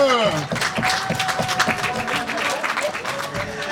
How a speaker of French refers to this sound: applaudissez-le s'il vous plaît.